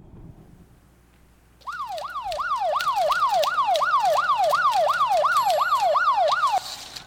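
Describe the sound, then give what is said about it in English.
A loud emergency siren kicks in after a brief quiet moment, whooping up and down in a fast, steady rise-and-fall pattern for about five seconds before cutting off abruptly. “Uh, I, I, know what sirens can do.”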